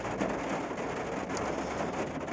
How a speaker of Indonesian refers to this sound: oh, ini mulai hujan jadi ada bunyi uh, air hujan